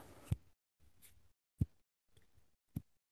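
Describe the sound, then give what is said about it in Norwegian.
Three sharp finger snaps, made to mark a cut point in a recording, ring out about a second apart, crisp, with soft rustling in the quiet gaps between them and no one talking. “Right, jeg skal bare knipse sånn at jeg hører på opptaket når jeg skal ta og bryte av.”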